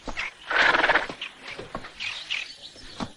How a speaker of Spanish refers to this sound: sigue cabalgando mientras sus amigos lo esperan.